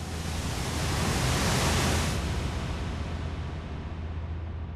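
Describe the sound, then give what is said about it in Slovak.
A steady, broad roar of sea waves and surf as a storm at sea begins to calm, swelling slightly in the first two seconds and then holding at a constant, dense wash with no voices. “Hneď, ako sa jeho telo ponorilo, začala sa búrka utišovať.”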